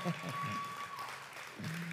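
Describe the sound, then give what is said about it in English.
An audience claps steadily for a couple of seconds, a dense, even wash of applause, with faint voices murmuring underneath, welcoming a mother visiting the church service. “Just give her a hand clap.”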